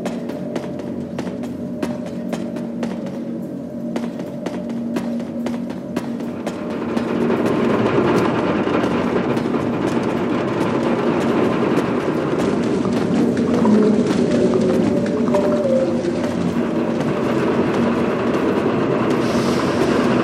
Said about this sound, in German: große Kolben, die sich schnaufend auf und ab bewegen und riesige Zahnräder, die hörbar ineinander greifen.